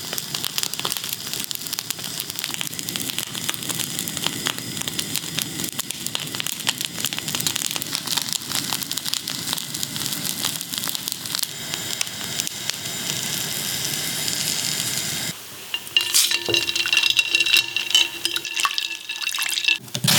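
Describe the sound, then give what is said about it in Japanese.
In-season returning bonito (modori-gatsuo) is seared over an open flame for tataki, with steady sizzling and crackling that runs without pause, turning brighter and more sputtering near the end. No one speaks. “今朝は今が旬戻りがつおのたたきのいい音それではお聴きください”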